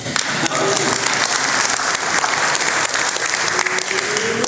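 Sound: audience clapping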